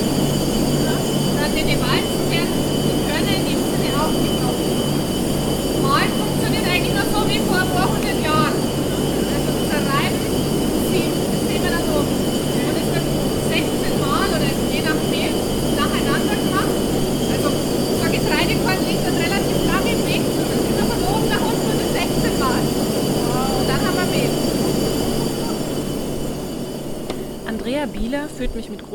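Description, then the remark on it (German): Grain mill machinery in the large mill building of the Hainmühle in Morsbach, which turns grain into flour, roars loudly and continuously, a dense low rumble with steady humming tones and constant rattling and clattering layered on top, fading slightly only in the last few seconds. “Um uns herum rattert, rauscht und rumpelt es wirklich sehr laut und wir steigen Stockwerk für Stockwerk das große Mühlengebäude hinauf.”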